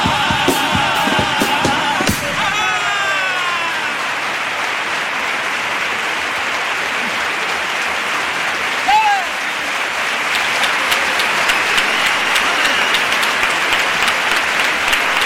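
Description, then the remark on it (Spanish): The audience at the Gran Teatro Falla breaks into a sustained, loud ovation for a second paso doble lyric, a dense steady roar of clapping with some cheers and whistles rising above it, continuing without pause throughout. “Bueno, pues esta es la ovación del Gran Teatro Falla para esta segunda letra de Paso Doble, en la que, bueno, pues nos ha ido metiendo ahí en esta historia, como solo él sabe hacerlo, una historia que al final, pues, acaba de forma trágica.”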